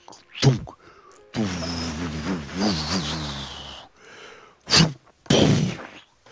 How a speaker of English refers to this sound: A big splash of water.